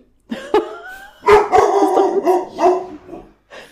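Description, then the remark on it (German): A dog barks and yelps in several loud, uneven bursts, some drawn out into whiny, howling tones, with short gaps between them and no talking. “Oh, ein Hund.”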